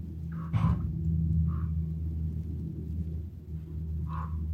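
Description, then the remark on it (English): A raven gives three deep, hoarse croaks spaced a couple of seconds apart over a steady low background rumble. “So many teachings come with the raven.”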